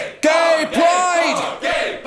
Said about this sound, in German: Beim dritten Schlag spritzt ihm Blut aus der Nase. Er öffnet den Mund, soweit er kann, und schreit.